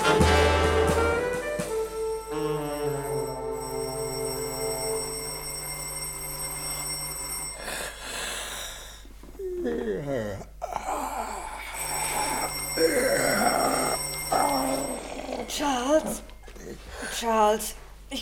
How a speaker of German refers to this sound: Die Haustür klingelt.